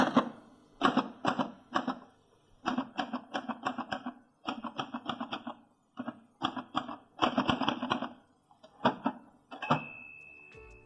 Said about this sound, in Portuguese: Se você não entendeu a descrição, vou pelo menos te agraciar com o som nostálgico tão peculiar dessa máquina de escrever.